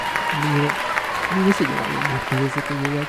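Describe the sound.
Steady, dense applause from a crowd, a continuous crackling wash of clapping, with loud voices calling out and cheering over it throughout.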